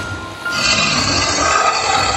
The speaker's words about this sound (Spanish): experimento una gran exaltación cuando oigo mugir otra vez a la cosa. Comprendo que está herida, quizá mortalmente.